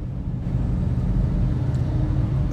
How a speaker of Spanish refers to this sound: Como si Dios fuera manejando el carro en el que voy manejando ahorita y yo voy de copiloto, yo podría perfectamente dormirme.